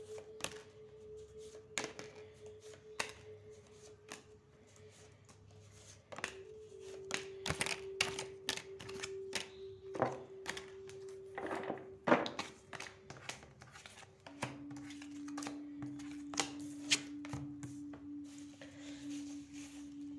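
Tarot cards being shuffled for a partnership reading, a run of irregular crisp snaps and flicks over a low, steady humming tone, with no one talking.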